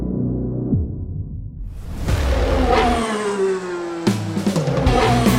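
A car engine revs hard and climbs in pitch, then a sharp screech like tires squealing, followed by another loud roaring burst of engine noise, with no talking.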